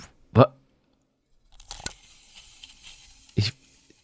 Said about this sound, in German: Ein Maßband.